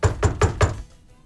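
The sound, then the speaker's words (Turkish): Four quick, evenly spaced knocks rap on a toilet stall door, fairly loud with a hollow thud, then stop abruptly into quiet. “şöyle bir ses.”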